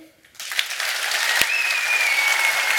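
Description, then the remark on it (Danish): An audience bursts into applause, clapping to vote for which story they want to hear. Many hands clap steadily and fairly loudly, with a few whoops or whistles rising above the clapping. “Men altså, jeg tænker bare, dem, der gerne vil høre Peters historie, de klapper nu.”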